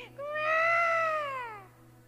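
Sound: imitated newborn baby crying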